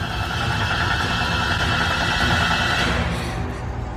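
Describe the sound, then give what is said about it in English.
A car engine runs steadily and loudly, a continuous low rumble with a droning mid-range whine that eases slightly near the end. No voices. “The car hurtled towards both the man and the drop off.”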